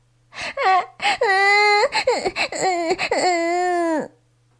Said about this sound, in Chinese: 所以，…的哭声听起来断断续续的。